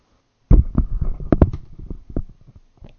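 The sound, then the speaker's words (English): A loud fart rips out in a sputtering run of low, rapid bursts lasting about two seconds, then trails off into faint puffs, with no talking over it. “I only have one singular word or sentence or phrase to say in response to the allegations against my farts.”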